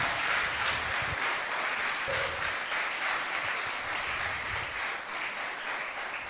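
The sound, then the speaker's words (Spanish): An audience applauds Jesus steadily, a dense, continuous wash of many hands clapping at a fairly loud, even level with no speech over it. “Vamos, dele su mejor aplauso a Jesús.”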